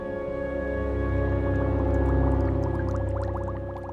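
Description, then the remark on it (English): A bubble machine hums steadily with a droning motor, while a scattered run of small, quick pops and wet squeaks rises over it, fairly loud, with no talking. “He has drunk himself into an inebriated stupor and staggers back and forth in front of his cave, popping bubbles as they shoot out of the bubble machine.”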